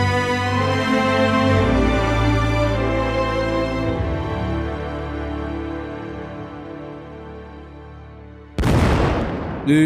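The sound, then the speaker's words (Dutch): A low, sustained droning tone with rich harmonics holds for several seconds and slowly fades, then a single loud cannon blast bursts in near the end, as cannons resume bombarding the town of Diest. “ze waren nog niet terug binnen de muren van Diest, op de kanonnen kwamen terug in actie.”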